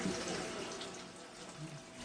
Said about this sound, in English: I love being in here. I love the sound of the water.